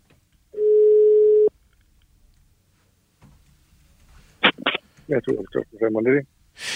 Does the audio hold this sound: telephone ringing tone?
yes